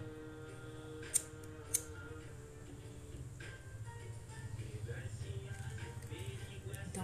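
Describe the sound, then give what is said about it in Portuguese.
A lighter that has died is flicked twice in quick succession, two sharp metallic clicks with no flame catching, set against a low, steady background hum. “Meu isqueiro, foi embora mesmo.”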